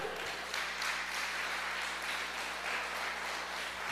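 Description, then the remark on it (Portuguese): An audience applauds the Lord steadily, a dense wash of many hands clapping at an even loudness throughout, with no voices rising above it. “Não dá para aplaudir o Senhor aí?”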